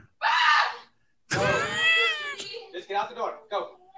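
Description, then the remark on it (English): A cat yowls loudly, a short harsh cry followed by a long, wavering drawn-out wail, then people start talking over the fading noise. “What is she afraid of the cat? Yeah, the cat's going to attack him.”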